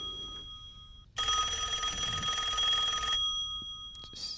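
A telephone bell in a radio studio rings loudly in a single sustained, rattling burst of about two seconds, then cuts off, leaving quiet low background noise and no talking.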